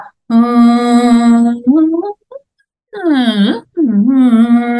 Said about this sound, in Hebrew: אוקיי, אז אני חוזרת לא, לאותו, לאותו צליל. אה, הדבר הזה, ובכוונה ניסיתי לשיר משהו שהוא לא בטונליות מוגדרת, אם שמת לב, כן. אבל אה, לא חשוב, לא בטוחה שהצלחתי.